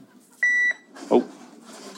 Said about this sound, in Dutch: Ik drukte de op mijn toeter, maar het is een heel, eh, hele lullige piep.